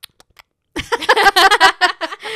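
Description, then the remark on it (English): A person imitates chewing and tasting with a few soft mouth clicks, then a loud run of rhythmic, voiced smacking and humming mouth noises for about a second and a half. “you know, people hate like chewing sounds. But yeah. that was my way of portraying to you guys that he was like tasting it, you know?”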